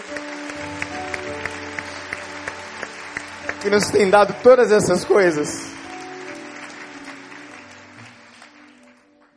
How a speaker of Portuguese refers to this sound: Você pode aplaudir ao Jesus maravilhoso.